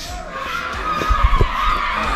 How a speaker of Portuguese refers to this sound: Esse barulho que vocês estão ouvindo, hoje é dia de Cosme e Damião, então a criançada aqui tá, olha lá, a molecada passando, tudo atrás de doce e tá? tal. Tem a tradição aqui na cidade, né?